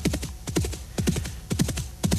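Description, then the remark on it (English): The hooves of a single horse carrying two Texas Rangers clip-clop in a brisk, steady rhythm of grouped beats through the sun-parched West Texas Badlands, fairly loud, with no voices over them. “Texas Rangers, who due to fiscal downsizing, their combined weight of 250 pounds, and general fearfulness, have been allocated only one horse.”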